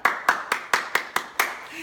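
Sharp hand claps land in a quick, steady rhythm, about seven in under two seconds, each one a crisp, loud smack with a short fade and no talk over them.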